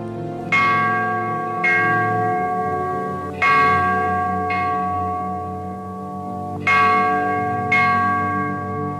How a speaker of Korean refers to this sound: 시계탑이 밤 12시를 쳤다.